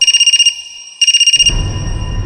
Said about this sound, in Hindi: lucky और Rocky चैन की सांस ले ही रहे थे कि तभी रॉकी का फोन बजा